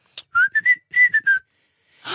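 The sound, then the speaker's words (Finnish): Someone in a cinema audience, from the third row, whistles along with a film's whistling part: a short melodic phrase of six clear notes in two quick groups, fairly loud, followed by a brief burst of noise at the end. “Kolmannen kerran, kun tuli tämä vihellyskohta, niin sieltä kolmannelta riviltä kuuluu vihellys.”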